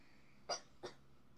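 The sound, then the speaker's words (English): Two short, sharp coughs in quick succession, the first slightly stronger, close to the microphone with a quiet background and no talking. “I have cough. Forgive me.”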